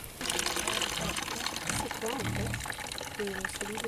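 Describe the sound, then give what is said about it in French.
Thick liquid sloshes and drips steadily as a hand removes clots from a container of fresh pig blood, continuous, with voices murmuring in the background. “Ce que j'enlève là, c'est les coagulants.”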